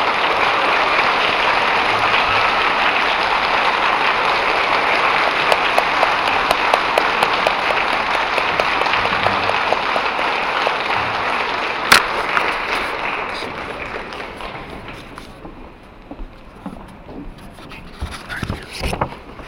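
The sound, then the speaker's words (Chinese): Loud, sustained applause from a large crowd welcoming Master Lu Jinhong up to speak, a dense wash of clapping holding steady for about twelve seconds before fading away, with a few scattered claps lingering at the end. “让我们用最热烈的掌声送给卢台长，请他上来。”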